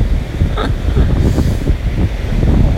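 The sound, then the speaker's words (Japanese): Ocean waves wash up on the shore at the sea, a steady, loud rush of surf and foam with gusty wind buffeting the microphone throughout. “おっと波が来ちゃう”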